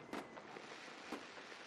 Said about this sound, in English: Well, these fireworks are crazy out here.